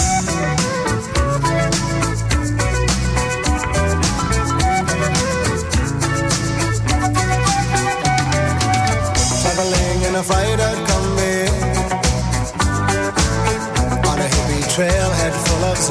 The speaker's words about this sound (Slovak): Zahrávam austrálsku kapelu …, ktorá na začiatku 80. rokov naspievala titul